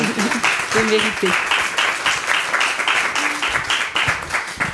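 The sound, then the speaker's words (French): An audience applauding, dense steady clapping that fills the whole stretch, with a few voices briefly calling out over it near the start. “Euh, franchement, je pense qu'un petit, un petit applaudissement.”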